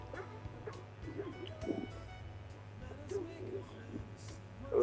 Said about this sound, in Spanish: Espérate que vienen unos perros, unos mastines enormes.